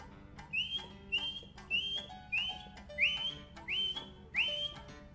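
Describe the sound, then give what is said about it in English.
A person whistles an imitation of the alarm call of a grey-backed camaroptera (bleating warbler): seven short, rising, slightly buzzy notes repeated at a steady rhythm, fairly clear over a low background hum. “The gray greyback Camaroptera is very vocal, and it gets its alternate name, bleating warbler, from its alarm call, which almost goes like”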